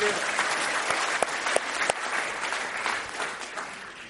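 An audience at a magic show applauds a volunteer bartender for about four seconds, a dense wash of clapping with a few sharper individual claps standing out, fading slightly at the end.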